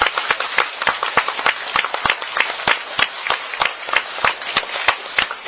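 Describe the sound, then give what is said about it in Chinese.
Attendees of a two-day health course applaud themselves for lasting to the last afternoon: many hands clapping in a dense, steady patter with sharp individual claps standing out, fairly loud and sustained throughout, with no one speaking. “OK，所以为我们能够坚持到最后一天下午，给自己一个掌声，好不好？”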